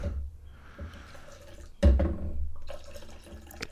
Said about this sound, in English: I'm going to mix it in a mixing cup and then I'm going to pour it in some separate cups. So let's try to get about four ounces so in there.